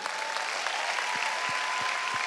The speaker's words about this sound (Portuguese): Rapaz, dá uma salva de palmas para os irmãos da mídia.